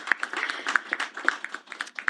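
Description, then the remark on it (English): A crowd claps together, a dense patter of overlapping hand claps with sharper individual claps popping out irregularly, moderately loud and steady for about two seconds: an audience applauding an Alberta government announcement of Budget 2023 funding for new nurse bridging program seats for internationally educated nurses. “I think we should clap.”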